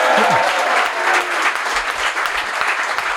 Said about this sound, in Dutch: Applaus.